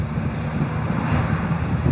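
Steady wind rushing and buffeting the microphone, a continuous loud roar with low rumbling gusts and no voices, lasting the whole moment, on a sunny but cold Saturday morning.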